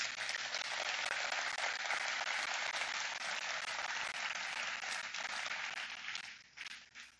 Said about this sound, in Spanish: Dale un aplauso.